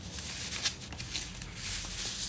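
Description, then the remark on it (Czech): Soft papery rustling as a book is handled, with a couple of light flicks as a slip of paper slides out and drops. Quiet throughout, with no voices. “Když opět bere do ruky kinetismus, něco z knihy vypadne.”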